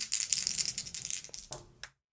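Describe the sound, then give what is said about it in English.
Dice rattle and clatter across a hard surface for about two seconds, a dense run of quick clicks ending in a couple of final taps as they settle. They are an action die and two challenge dice rolled for a tabletop game roll. No one speaks. “So we're going to go ahead and roll plus three.”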